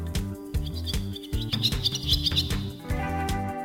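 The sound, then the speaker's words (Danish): A barn swallow's twittering song of quick, high chirps and warbles, fairly clear, running over a steady low rhythmic background that sounds like music. “Sommeren igennem hørte til glyderens sang. Ofte foredraget fra en ledning,”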